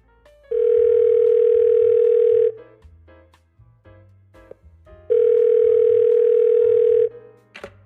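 Two long, steady ringback tones of about two seconds each, spaced by a few seconds of quiet line noise, as a phone call from a news program to a land broker in Đông Anh, Hanoi, waits to connect.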